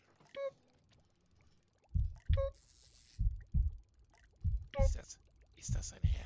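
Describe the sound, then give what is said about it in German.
A slow, steady heartbeat of deep, muffled double thumps repeats about four times, loud, with brief squeaky chirps and a soft hiss scattered between the beats. “Es ist, es ist ein Herzschlag.”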